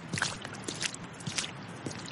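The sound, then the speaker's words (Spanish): Slow, steady footsteps of a person walking laps around a concrete slab, about four evenly spaced steps with a gritty scuff to each, moderately quiet, with no one talking. “Da otra vuelta más a la plancha de concreto.”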